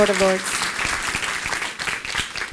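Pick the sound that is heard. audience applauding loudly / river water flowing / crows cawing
audience applauding loudly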